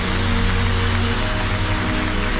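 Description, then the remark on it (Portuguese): An audience applauds God in a dense, steady wash of clapping that carries on unbroken for the whole stretch, with low sustained musical tones humming underneath. “Aplauda Ele.”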